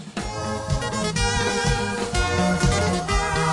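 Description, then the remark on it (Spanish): An upbeat, danceable chola song plays at full volume, with a bouncing bassline, steady percussive hits and bright melodic lines running continuously throughout, with no talking over it. “Es esta que suena así.”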